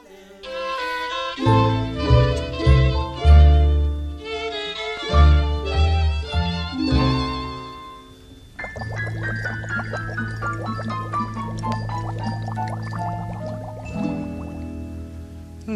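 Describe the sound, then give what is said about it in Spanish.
A bouncy children's song plays loudly, with bright plucked notes in a steady rhythm, then a sliding descending melody over a sustained backing, no singing yet. “me despido de ustedes con un beso sonoro y con esta canción dedicada a Itzel”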